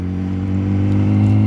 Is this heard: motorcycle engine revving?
yes